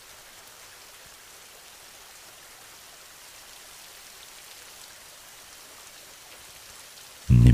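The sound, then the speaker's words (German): Steady rain falls on the ground, a constant soft hiss of countless drops pattering at an even level, with a sudden loud burst of noise right at the very end. “Höre genau hin, wie das Geräusch entsteht, wenn der Regen auf den Boden trifft.”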